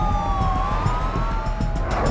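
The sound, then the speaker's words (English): Police sirens wail steadily over a heavy, rumbling engine roar as several squad cars speed up the incline of a hospital parking garage, the tones sliding slowly throughout. “At the bottom of the hospital parking garage, several squad cars scurry up the incline to hopefully capture the anonymous shooter.”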